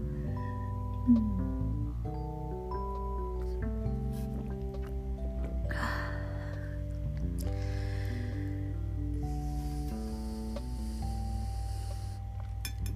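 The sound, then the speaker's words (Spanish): Someone drinking water, with a few soft sips and swallowing noises over a steady bed of background music; nobody speaks. “Esperen, una pausa para tomar agüita sagrada.”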